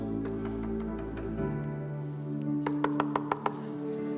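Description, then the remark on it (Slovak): A quick, evenly spaced series of about six knocks on a door at night rings out sharply near the end, over a steady low background hum, with no one speaking. “A počul som zaklopanie.”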